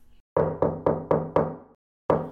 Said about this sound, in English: Once upon a time, Molasses Pig went to visit Peter Pig. He knocked knocked on Peter's door.